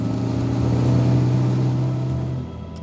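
A motorcycle engine drones steadily behind a car driving along Lierstranda, its low humming tone holding for a couple of seconds before easing off and quieting near the end. No voices.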